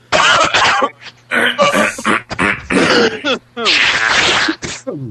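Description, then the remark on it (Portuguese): A string of loud coughs and throat clearings as people get ready to begin, several harsh bursts in quick succession with brief pauses between them, over a faint steady hum. “Alguém aí quer dar uma última tossida, último arroto?”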